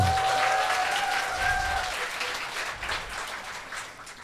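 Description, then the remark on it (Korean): A crowd claps steadily in dense, continuous applause that stays fairly loud throughout, tapering slightly toward the end, with a couple of faint whistles near the start. “아, 노래는 박수 좀 쳐주세요.”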